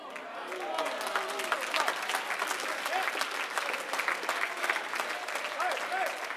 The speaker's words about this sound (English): That's just about what I thought I would get right there. Just a few hand claps, thought, yeah, yeah, okay, that, that preacher's good, but you know, I don't really see that.